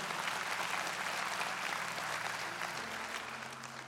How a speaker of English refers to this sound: hey, if you're gonna clap, just commit, all right? Just, all right, there we go.